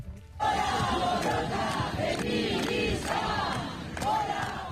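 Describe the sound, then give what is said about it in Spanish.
A large crowd chants and shouts together at an afternoon street demonstration of the feminist general strike in the Basque Country, loud and dense throughout, with sharp claps or whistles punctuating the steady roar of many voices. “Éxito rotundo de la huelga feminista general en las manifestaciones de la tarde ayer en Ego Euskal Herria”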